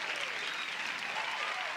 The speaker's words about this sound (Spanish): Así que Primero que nada, quiero empezar diciendo felicidades a eh, este caballo, Albert Pujolme. Sí, eso merece, eso merece eh, el, aplauso, el aplauso.